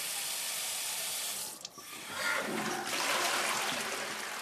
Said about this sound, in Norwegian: Å drikke rent vann fra springen og kunne trekke ned i do er en selvfølge for de fleste.